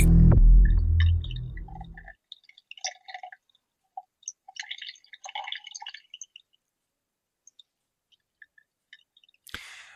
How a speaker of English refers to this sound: the noise that you can hear in the background isn't exactly … on the toilet. She's just sipping her tea